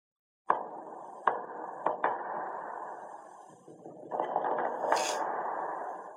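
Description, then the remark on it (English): Bass drum strikes thud over a full orchestra, several sharp hits in the first two seconds, then the ensemble swells louder with a bright cymbal-like burst near the end. “Bass drum in the orchestra.”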